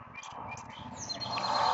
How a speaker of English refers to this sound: Sometimes I be out here listening to these birds. They be talking to me. I be so damn high, be thinking they talking to me. It probably is.